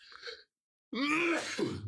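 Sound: a sneeze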